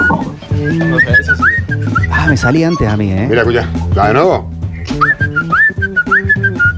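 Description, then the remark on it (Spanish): A thin, breathy whistle drawn in on an inhale holds a steady high tone, heard in two stretches with small pitch dips, while people talk and laugh in between. “¿Saben silbar para atrás?”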